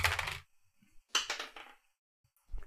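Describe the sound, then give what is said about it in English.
Dice are re-rolled, clattering and tumbling across a hard tabletop in two loud, rattling bursts, followed by a single softer knock near the end. Nobody speaks. “Re-rolling your not stats, re-rolling your dice.”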